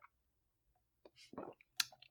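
A quiet sip of beer: a few small wet mouth clicks, then a short slurping gulp and a swallow, with no talking.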